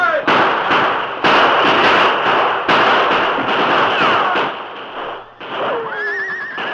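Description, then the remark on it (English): A rapid series of loud gunshots cracks out over a continuous noisy clamor as two sides exchange fire, with a horse's high, wavering whinny rising clearly near the end. “They're firing at us. Give them some lead, man.”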